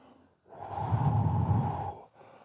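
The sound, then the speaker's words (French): A voice blows out a soft, sustained breathy whoosh imitating a gentle wind rising, swelling for about a second and a half before fading, alone with no speech. “Ah oui, je l'entends par là, le, le petit vent il monte, il commence à nous pousser.”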